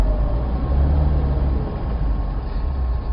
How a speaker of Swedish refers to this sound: Och jag som pratar och, som du kanske hör, kör